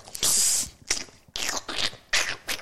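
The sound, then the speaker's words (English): A voice imitates the wet sloshing of standing on a water-soaked shower floor mat with several breathy, squelchy bursts in an uneven rhythm, fairly loud, each a hissy splash-like puff with brief gaps between. “There's more water on the ground and it's just like you're standing on like slosh because you can hear it go”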